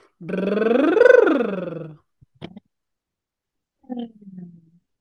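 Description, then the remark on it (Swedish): A buzzy lip trill swoops up in pitch and back down in one sustained, fairly loud breath lasting under two seconds, followed by a brief click and a short low vocal sound. “Um, vi, åker, vi åker lite eh, berg och dalbana här. Brrr.”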